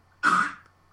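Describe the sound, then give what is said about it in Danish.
A dog retches once on the floor, a short harsh hacking burst that fades quickly, with no talking around it. “Det var min hund, jeg ved ikke om I kunne høre det, men det var min hund, der stod op på gulvet.”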